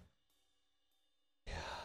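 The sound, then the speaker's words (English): Soft, steady music plays quietly on an N64, then a loud breathy yawn from a tired listener bursts in near the end and carries to the finish. “I like that you you yawned right through that.”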